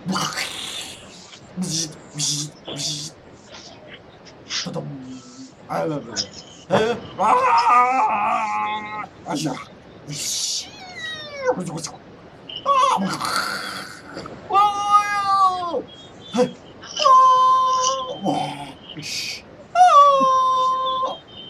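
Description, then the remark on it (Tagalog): A series of loud, dog-like whines and wails with drawn-out, wavering tones that rise and fall, separated by short pauses and preceded by scattered noisy bursts and yelps; a sound effect from Spider-Man. “Hindi spider Aso ata yun.”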